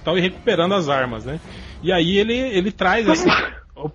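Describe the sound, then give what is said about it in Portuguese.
A short, sharp sneeze bursts out in the middle of steady conversational speech, with a bit of laughter as talking resumes right after. “saúde. Opa.”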